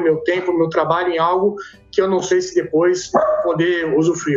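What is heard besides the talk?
dog barking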